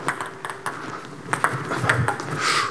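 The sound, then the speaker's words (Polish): A table tennis ball is struck back and forth in a rally at a score of 4-4: a quick series of crisp, high clicks at uneven intervals, with a soft, noisy hiss building near the end. “Czy to cztery, cztery i ty serwujesz.”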